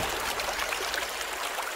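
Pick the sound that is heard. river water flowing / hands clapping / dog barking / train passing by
river water flowing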